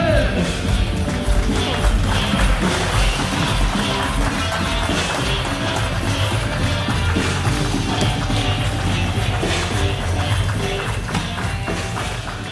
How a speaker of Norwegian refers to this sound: Mine damer og herrer, det er på tide å ta en skikkelig stor applaus